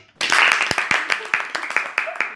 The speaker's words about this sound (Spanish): Hermoso, aplausos.